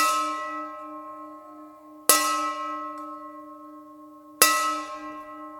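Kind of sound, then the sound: signal or alarm, bell rung three times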